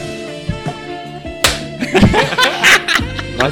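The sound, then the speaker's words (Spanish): A single sharp, loud slap of palms meeting in a high five, done again on request, followed right away by laughter and chuckling from several people. “Ese choque otra vez, a ver.”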